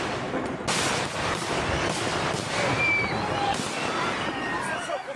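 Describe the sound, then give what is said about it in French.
Fireworks go off at a fireworks show just after 11 pm, a firework rocket exploding and sending colored trails toward the spectators, in a rapid series of sharp, crackling bangs, with a few thin whistling streaks, over a steady hubbub of crowd voices. “Euh, jusqu'à ces bruits inhabituels pour un feu d'artifice, la scène est filmée par un spectateur.”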